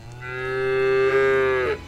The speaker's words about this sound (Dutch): Af en toe lopen Charlotte, Titien en Vivien binnen. De huiskoeien. Gevolgd door stier Arthur.